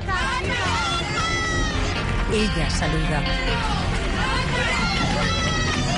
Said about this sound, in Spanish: Es la última imagen de la cantante saliendo de mi gitana. Lo hace en la parte de atrás del todoterreno. Se escuchan gritos de apoyo.